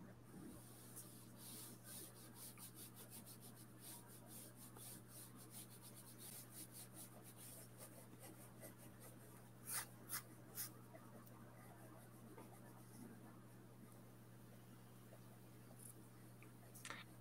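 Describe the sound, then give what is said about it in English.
An Apple Pencil sketches a drawing across a tablet screen in soft, quick strokes and light taps, a few sharper clicks standing out, all quiet over a low steady electrical hum. “I've managed to get a wee bit of charge now on my on my Apple Pencil, which is great.”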